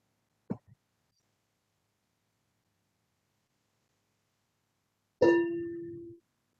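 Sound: meditation bell being struck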